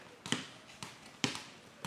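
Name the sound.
balls bouncing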